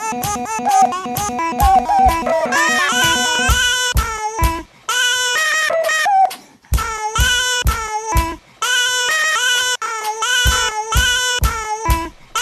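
Chopped baby vocal sounds (coos, cries and squeals), 83 samples recorded from a baby over a year, are sequenced into a rhythmic, melodic musical track, with sharp stuttering cuts, repeated pitched phrases and brief pauses between sections.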